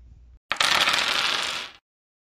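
Dice are rolled during a board game, rattling and tumbling in a bright clatter lasting just over a second, starting abruptly after a brief low hum and stopping cleanly into silence.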